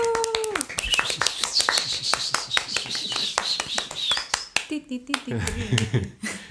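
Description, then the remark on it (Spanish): A burst of applause for a married-couple guest duo from La Matrimoniada, welcomed onto a Spanish-language show: many hands clapping in a dense, rapid patter with a high whooping cheer over it, fading after a few seconds as people start talking. “un fuerte aplauso para uh. ellos.”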